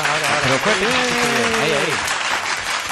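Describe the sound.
Loud, dense applause celebrating the 250th programme fills all three seconds as a steady wash of clapping, with a voice speaking or calling out over it during the first two seconds.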